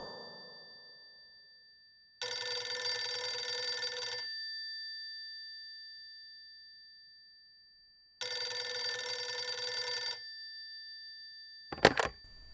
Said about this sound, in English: I placed my hand on the receiver and it immediately began to ring. I was very confused indeed, and the telephone rang for some time before I answered.